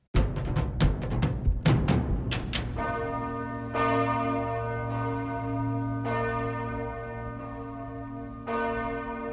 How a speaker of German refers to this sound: Die Hauptglocke der Pfarrkirche St. Peter und Paul in Bühl bei Baden-Baden. Hier schwingen drei Tonnen Bronze und erzeugen einen ganz individuellen Klang.